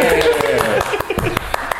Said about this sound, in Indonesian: Tepuk tangan